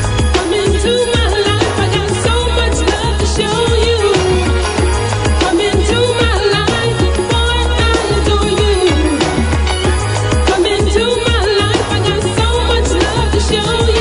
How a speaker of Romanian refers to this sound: Bine, eu o să vă surprind cu o piesă foarte puțin cunoscută, dar pe care o ascultam în perioada liceului și care îmi plăcea mie mult de tot.